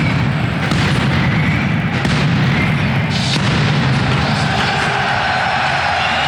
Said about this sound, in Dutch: Zo nog even wat eh, vuurwerk vanaf het veld. Niet, althans, de bedoeling, maar we hopen dat het de lucht gaat.